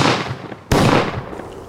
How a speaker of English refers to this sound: The rider spurred the horse once more and dashed out of town, off in the direction of his camp. I fired two more shots at him, but without effect.